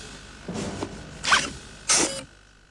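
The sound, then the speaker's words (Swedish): Motorized shoelaces cinch tight in three short mechanical whirring bursts, each a quick buzzy zip with a slight ratcheting edge. The last burst is the loudest, and no one speaks. “Och hur svårt ska det vara att få automatiserade skosnören?”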